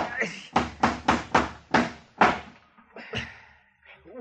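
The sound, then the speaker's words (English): A hammer drives a nail into a rotten, dry wooden door with about six sharp, evenly spaced blows, fairly loud. Brief murmured voices follow once the hammering stops. “Now, let's just try one more nail.”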